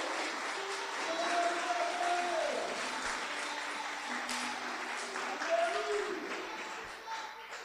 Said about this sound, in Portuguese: Sim mas o nosso socorro vem do Senhor dos Exércitos. Pode aplaudir o Senhor, é dele que vem o socorro.